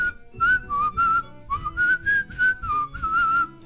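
Someone whistles the intro melody of a song, a clear high tone sliding between notes in a bouncy phrase of several notes, fairly loud with breathy air noise and no talking.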